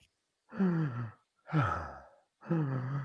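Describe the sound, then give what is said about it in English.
Three deep, audible diaphragm breaths drawn in to expand the lungs, each drawn out and voiced like a heavy sigh, separated by short silent pauses, with no talking. “When you breathe in your diaphragm,”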